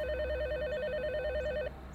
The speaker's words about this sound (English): It's a warm early afternoon in August 2003 in the sleepy city of Erie, Pennsylvania. During the lunchtime rush at around 1.30, the phone rings at Mamma Mia's Pizza on Peach Street.